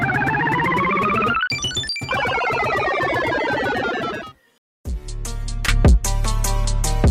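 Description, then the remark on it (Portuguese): A short burst of busy, layered transition music leading into a second segment, with dense rising tones, a brief near-silence, then a punchier beat-driven section with sharp hits, loud and with no talking. “vamos pro segundo bloco então. Música”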